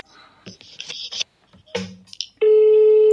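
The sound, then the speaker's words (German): A ringing tone of a call to someone's mobile phone starts abruptly after a few seconds of faint voices and shuffling, then holds as a loud, steady electronic beep that runs to the end. “Ich weiß jetzt nicht, ob sie bei mir dran geht, weil ich habe ja eine neue Handynummer.”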